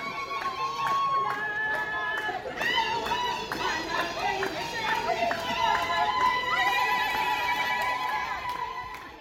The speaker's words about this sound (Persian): کلا کنیایی ها تو بحث موزیک و رقص چای معطل قندن و بدتر از ما ایرانی ها تقی به توقی میخوره شروع میکنن به شادی و رقصیدن حالا تصور کنید ترکیب گروه های ایرانیایی که تازه نفس وارد کنیا شدن با گروه استقبال دم فرودگاه چه شوری به پا کردن